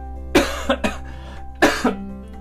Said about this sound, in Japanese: ごめんなさいあのあ僕はあれなんよそう咳やばくて、うん、病院行ったその話しようか、えっと、咳やばくて咳やばくて病院に行ってんねんけど